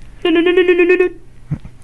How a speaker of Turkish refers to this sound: Hakim amcanın telefonu çalıyor. Açsam mı? Açayım tabii.